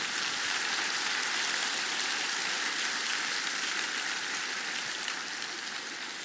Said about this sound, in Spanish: Damos un aplauso Señor.